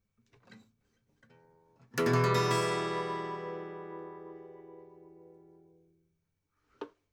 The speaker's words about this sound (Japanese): こういう音ですね。E マイナーですね、これは。E マイナーで、まずこれ綺麗に鳴らせることちょっとねチューニング甘いですけども